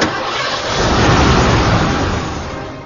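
A car engine starts up and revs, its loud mechanical roar swelling through the middle and easing off slightly at the end, with no voices.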